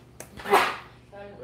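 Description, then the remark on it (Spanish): A single sneeze: a brief intake, then a sharp, hissing burst that quickly fades, followed by someone starting to speak. “Salud.”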